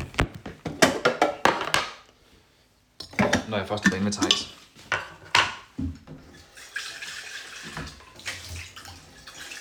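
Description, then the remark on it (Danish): Dishes and a pot clatter in quick knocks as someone makes coffee at home, then running water pours steadily into the coffee pot, with a brief spoken line heard over the kitchen sounds. “Øh, så nu, vi starter lige med at sætte en kop kaffe over.”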